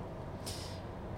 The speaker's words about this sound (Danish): Vi kører lige nu i denne her Peugeot 306 op ad de slovenske motorveje.